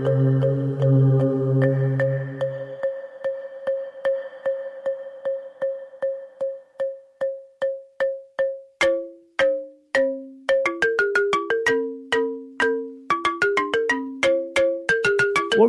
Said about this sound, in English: listening to right now is uh, music played by me on my Ghanaian balafon. It's a wonderful instrument.